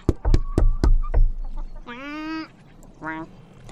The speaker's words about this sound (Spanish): Temprano por la mañana, el pato tocó a la puerta.